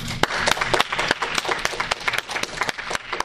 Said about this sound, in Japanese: じゃあ最後神様にですね主なる神様に拍手をして終わりにしたいと思います